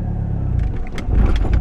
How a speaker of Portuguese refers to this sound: Ah, engata a marcha, ah, pisa no acelerador, vai tirando o pé da embreagem. O carro morreu. sabe quando o carro morre mil vezes?